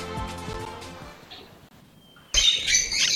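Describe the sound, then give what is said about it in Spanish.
Harsh bird squawks: a few nasal calls at first, then a sudden loud burst of raucous, overlapping squawking that fills the last second with no talking. “Ahí están mis aves, mis aves están siempre conmigo.”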